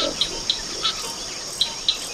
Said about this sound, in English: Corkscrew Swamp Sanctuary is in the heart of Florida's Everglades. It's home to herons, frogs, hawks, and of course, alligators. Bernie Krause braved the gators to capture the sounds, but the real threat came from nearby development.